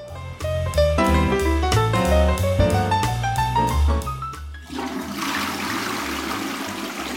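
A short melodic music passage climbs upward, then gives way to a toilet flushing in a pizzeria: a loud rush of swirling water that continues steadily until the end.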